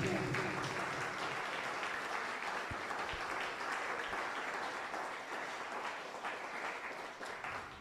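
An audience applauds in praise to Shen in a steady, dense wash of clapping that stays loud and even for several seconds, with faint voices mixed in beneath.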